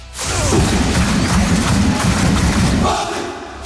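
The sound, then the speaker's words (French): A stadium crowd of Paris Saint-Germain football supporters claps in steady rhythmic unison, loud dense thumps repeating for a few seconds over a roaring, chanting mass of voices. “Dès que vous entendez ce clapping du Paris Saint-Germain”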